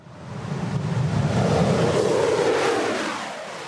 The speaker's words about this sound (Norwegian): Dette er lyden av russernes nyeste kampfly, en MiG-35, som snart vil være å se i nordområdene.